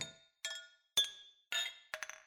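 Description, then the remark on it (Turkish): Several bright glass clinks ring out in quick succession in a toast, about five sharp chimes with short shimmering decays, fairly clear, with no voices. “Şerefe!”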